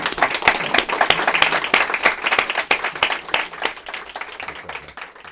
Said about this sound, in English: And President Khuri, we're so lucky to have you at, at an incredible time like this. So thank you so much for your thoughts. Thank you. A big round of applause for President Khuri.